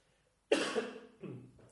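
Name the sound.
cough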